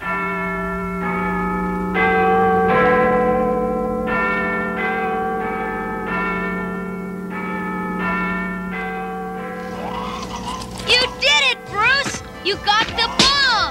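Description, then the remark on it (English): The Big Ben clock tower bell clangs loudly over and over in a steady rhythm as its clapper swings, each strike ringing into a deep lingering hum, before shrill, warbling vocal sounds break in near the end. “And as the clapper begins its swing, we hear the resounding bell clangs from Big Ben ringing out.”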